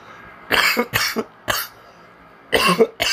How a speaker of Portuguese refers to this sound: Ai, merda, tô tossindo de novo.